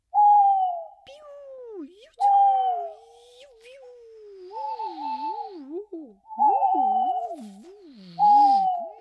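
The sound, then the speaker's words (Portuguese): Eerie nocturnal birds calling at night in a forest in a repeated pattern of long hooting notes that slide and wobble in pitch, clear, with a few sharp clicks between calls. “Quando ouviram o canto das aves noturnas, se arrepiaram e apressaram os passinhos.”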